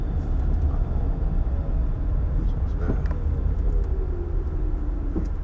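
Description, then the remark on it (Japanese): Steady, loud street traffic at Takaido Station rumbles throughout, with passing vehicles blending into a continuous roar, while a man speaks briefly over the noise. “はい、高井戸の駅ですけど自転車もねかなり今歩道を走るようになって”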